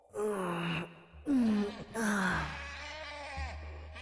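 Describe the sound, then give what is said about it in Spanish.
Heavy breathing with strained gasps and moaning exhalations, repeated in short labored bursts as if someone is out of breath, with a low steady hum underneath. “Suyana escuchaba el jadeo y respiro de alguien”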